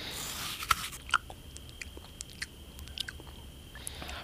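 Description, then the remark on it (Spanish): Biting and chewing of a hard cake, with several sharp, irregular crunches over a soft, steady mouth noise and no talking. “Mmm, este pastel está delicioso. Tal vez un poco duro, pero no importa.”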